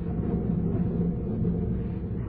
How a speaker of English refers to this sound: Still thundering.